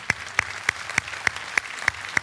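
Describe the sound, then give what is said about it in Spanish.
Congregation applause with a steady, evenly spaced run of sharp, prominent claps standing out over a continuous background of many hands clapping, moderately loud, with no talking. “Otro aplauso para ellos, amén.”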